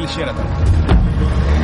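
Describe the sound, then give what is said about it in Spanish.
A car engine turns over and pulls away to follow a taxi, a steady low rumble rising briefly as it accelerates, with a short whoosh midway through. “El hombre de las fotografías arranca y le sigue.”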